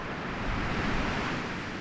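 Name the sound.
strong wind blowing outdoors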